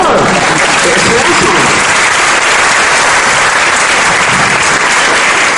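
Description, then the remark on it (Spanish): A crowd bursts into sustained applause, dense overlapping claps holding at a steady loud level for several seconds without letting up. “Aplaudan todos, por favor.”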